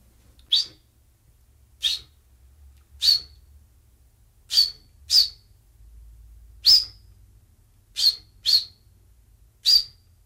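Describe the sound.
A person whistles an imitation of a chaffinch call: nine short, sharp, high-pitched chirps at irregular intervals, clear against a quiet background with no talking.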